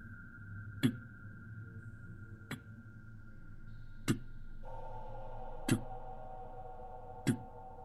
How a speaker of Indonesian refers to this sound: Begitu kira-kira langkah kaki suaranya Kadang terdengar tergesa-gesa, kadang terdengar santai.